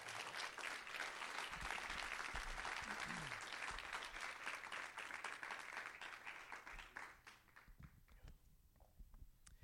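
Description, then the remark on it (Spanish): Loud, sustained applause from an audience, given to the Lord, dense crackling claps filling the first seven seconds before thinning into a few scattered claps at the end, with some voices faintly mixed in. “Si usted lo cree, den un aplauso fuerte ahora sí al Señor.”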